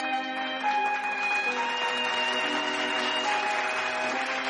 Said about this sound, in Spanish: La ovación sumergió sus siguientes palabras, así que optó por dejarlo ahí y permitió, con una sonrisa beatífica, que la gente pudiera comer tranquila.